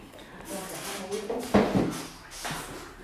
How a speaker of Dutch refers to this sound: Nou moet ik weer de deur dichtgooien voor het geluid. Eén momentje.